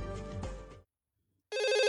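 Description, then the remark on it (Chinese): A telephone rings with a loud, bright electronic trill that starts abruptly after a short silence, following a brief burst of low, harmonic tones. No one speaks. It is a call at one in the morning to Detective X from Miss Mary's butler, Bruce. “这一天凌晨一点，X 神探接到 Mary 小姐的管家布鲁斯的电话”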